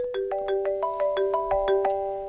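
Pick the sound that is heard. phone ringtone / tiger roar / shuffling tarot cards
phone ringtone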